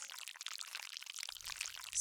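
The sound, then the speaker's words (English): Thick slime drips down from a creature's slime body in a steady, wet, crackling stream for about two seconds, with a low gloopy rumble joining near the end. It is fairly quiet and has no voices. “slime dripped down on me like the dome of his slime body was about to swallow me whole.”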